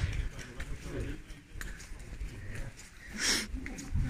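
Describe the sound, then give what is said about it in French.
A hunting dog sniffs in a string of quick, breathy snuffles, with rustling and low outdoor rumble underneath and one sharper, louder puff near the end. “C'est un chien de chasse qu'on a trouvé l'autre jour, abandonné dans la montagne.”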